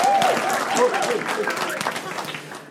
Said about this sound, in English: there was a round of applause. So can you do the same